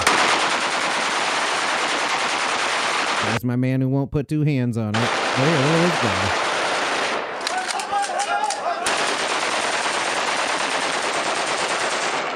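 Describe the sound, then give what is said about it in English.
Loud, dense gunfire crackles almost continuously for the whole stretch, a rapid barrage of shots as hunters shoot down birds. Men's voices speak over the shooting for a few seconds in the middle. “Look at the skill it must take to shoot down birds without looking.”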